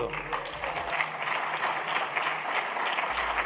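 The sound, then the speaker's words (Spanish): A group of reporters applauds poll results on the president's recall vote, a dense, continuous patter of clapping, steady and fairly loud throughout, with no voices rising above it. “Eh, y le aplauden los reporteros.”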